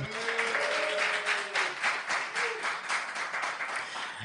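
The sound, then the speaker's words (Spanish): A live audience bursts into steady applause, dense overlapping clapping that holds at an even level for several seconds, with a few brief voices or cheers rising faintly early on. “Un aplauso, un aplauso, venga.”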